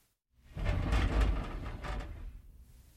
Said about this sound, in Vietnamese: Và trong lúc cô đang chơi với chú chó vàng ở ngoài sân, thì cánh cửa ban công của nhà chú mở ra.